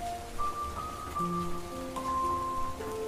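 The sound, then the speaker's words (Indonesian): Steady rain hisses throughout at a moderate level, a continuous wash of drops, with soft sustained musical tones layered over it and no talking. “Terutama saat serenade hujan mulai mengalun”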